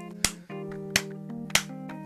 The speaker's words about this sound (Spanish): Entonces, te saludamos hoy. Saludos hoy. Te dedicamos una tres aplausos.